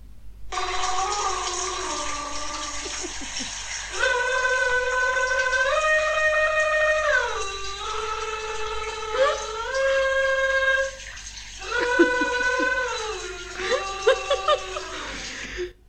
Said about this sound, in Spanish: O sea, yo me estoy duchando, haciendo estupideces en la ducha, porque bueno, si soy yo. Cualquier vaina que se me ocurra lo hago ahí,